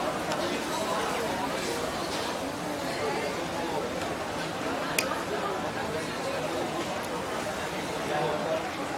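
Busy hawker centre ambience at a common people's eatery: a steady wash of many overlapping voices chattering at once, with faint clinks and a brief sharp tap midway, no single speaker standing out.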